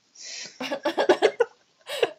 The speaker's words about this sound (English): No, I meant with your cough.